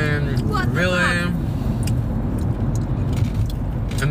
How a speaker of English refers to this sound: Oh my gosh! Look at this car.